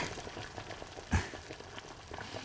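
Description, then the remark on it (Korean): A pot of doenjang stew, already made by a man at his home, bubbles steadily, a dense crackling simmer with one louder pop midway through. No voices are heard. “남자의 집에 도착하니 남자는 이미 보글보글 된장찌개를 끓여 놓았네요.”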